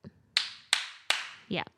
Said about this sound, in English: So, I always give the same advice, which is to clap three times really, really loud. What does that do? So, do this now. Clap three times really loud, like hurt your hands, hurt.